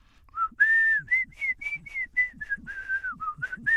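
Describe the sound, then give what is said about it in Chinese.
Two old friends whistle to each other a short signal tune, their secret signal from childhood and university days: about a dozen brief, steady-pitched notes in a quick, uneven rhythm. The whistle is fairly loud and slightly breathy, with no talking. “哎呦，还是老了，这这吹口哨真难听。”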